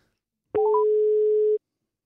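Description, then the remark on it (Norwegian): A steady electronic telephone tone of an outgoing call, presented as Norsk Gallup calling, sounds alone for about a second, opening with a quick rising blip of short beeps before settling into one sustained, fairly loud pitch. “Og norsk gallup som ringer nå,”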